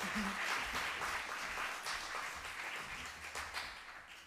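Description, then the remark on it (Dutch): A studio audience applauds a guest, a stem cell researcher from Leiden University Medical Center, steadily, a dense wash of many hands clapping at once, holding fairly even in loudness before easing off slightly toward the end. “Ga maar zitten, applaus voor”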